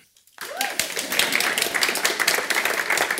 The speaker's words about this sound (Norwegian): Og gi applaus når det måtte føles riktig.